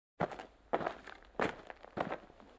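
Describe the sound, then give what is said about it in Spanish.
Four heavy footsteps land at a steady, quick pace, each a crunchy thud, with no talking, like someone running over gritty ground. “Hay unos niños corriendo detrás de unos hombres, vestidos de negro con una maleta,”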